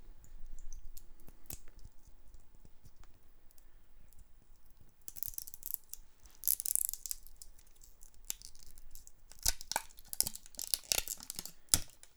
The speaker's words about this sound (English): So he comes in this little black plastic. I'm gonna rip this. I'll rip it by here. You can hear it.